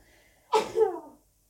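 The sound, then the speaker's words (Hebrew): A single sharp, fairly loud sneeze: a quick intake of breath, then an abrupt burst that trails off into a short breathy tail before silence. “מי אומר שהצליל של האפצ'י הוא פחות או יותר מהצליל של הצחוק המקסים עכשיו?”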